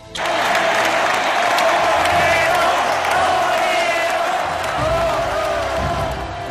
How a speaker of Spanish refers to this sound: Hay que salir a aplaudir, que no se pierdan esas ovaciones tan toreras.